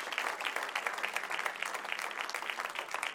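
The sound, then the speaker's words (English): A crowd at a church service claps hands for the guests in steady, dense applause, many people clapping together at once, sustained and fairly loud throughout with no voices standing out. “Why don't we give them a hand clap again?”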